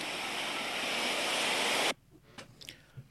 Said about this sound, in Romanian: Și valurile mării. Și valurile mării.